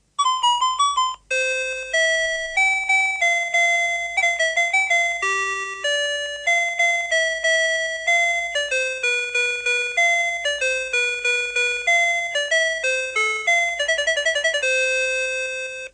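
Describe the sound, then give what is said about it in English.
A Sharp talking clock's electronic chime plays a long, bright melody of quick beeping notes, steady throughout with hardly a pause, and no voice anywhere. “if you have not heard the sharp talking time, Brian Gaff has come to the rescue. This is what it sounds like.”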